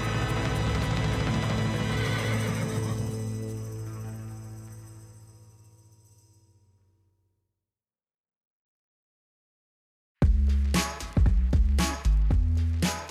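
A loud horse whinny bursts in after a long, fading sustained tone and several seconds of silence, shrill and wavering, repeating in a few excited calls.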